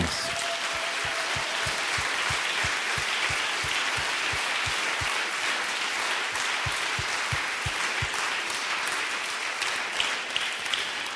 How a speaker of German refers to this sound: Und dieser Applaus, den du beginnen wolltest, wirklich für all unsere Mitarbeiter ein Riesenapplaus.